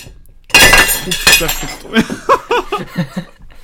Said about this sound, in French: Et l'assiette posée à côté, j'ai tapé dedans.